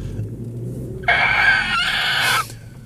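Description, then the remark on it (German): A voice imitates the hiss and whoosh of a bus's pneumatic doors at a stop in Friedrichshagen: a loud, strained vocal burst lasting over a second, briefly dipping midway, then cutting off. Faint background murmur surrounds it. “Es stimmt, die pneumatischen Türen.”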